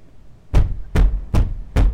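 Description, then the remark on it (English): Four heavy, evenly spaced bangs on a wooden closet door in a dorm room at night, muffled, each a deep thud with a short ring, coming from inside the closet; no voices. “A banging sound emerges from the closet.”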